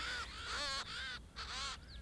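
ravens cawing

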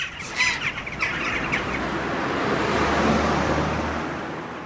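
crows

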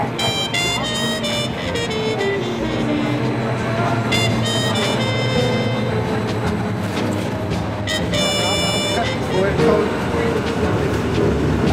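train riding on rails

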